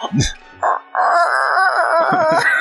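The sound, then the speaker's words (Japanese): A person imitates a rooster crowing, loud: a few quick clipped syllables, then a long, wavering, sustained cry that stretches to the end. “行くときは、どう聞いたって、コケコッコー。”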